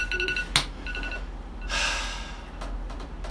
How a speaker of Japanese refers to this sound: これタイマーねあタイマーあ時間だなったタイマー11分11分です、うん11分